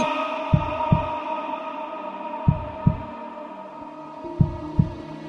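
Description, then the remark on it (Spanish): A human heartbeat thumps in three slow lub-dub pairs, low, over a steady droning hum with no voices. “Hemos escuchado las dos versiones del latido del corazón humano, la del ventríloco izquierdo, siniestro, y la del ventríloco derecho, materno.”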